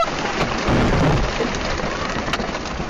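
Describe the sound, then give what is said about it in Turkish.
Steady, heavy rain pours down in a dense hiss, with a low rumble of thunder swelling beneath it early on, all loud with no voices; a storm at a lake where people were camping in Russia's Volga region. “Kamp yapmaya gittikleri gölde fırtınaya yakalandılar.”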